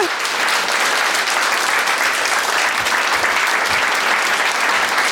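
Loud, sustained applause from an audience welcoming a guest onto a stage, a dense wash of clapping that holds steady at full strength for several seconds without any voices rising above it.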